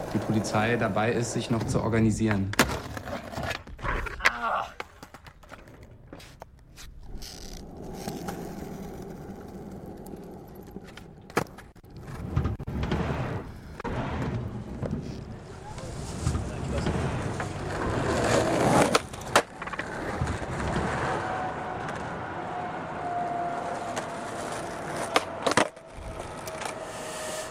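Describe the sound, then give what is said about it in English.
Skateboard wheels rumble steadily over pavement at the Hôtel Dieu skate spot in Nantes, France, in the evening, broken by sharp wooden clacks and pops from tricks, over a continuous drone with the TAN line 3 tram in the background and voices talking intermittently underneath. “Voilà, en toile de fond, vous entendez le tram de la ligne 3, ligne 3 du TAN de Nantes, le Skater de l'Hôtel Dieu de Nantes qui nous offre euh, cette clôture d'interférence dédiée donc au skate ce soir.”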